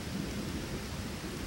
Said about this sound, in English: 一声响破天际的惊雷打响。闪电掠过，霎时天空亮如白昼，又瞬间阴沉。Carol 最讨厌的打雷和下雨天竟然同时到来。